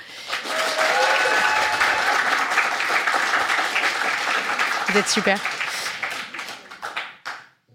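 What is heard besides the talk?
studio audience applauding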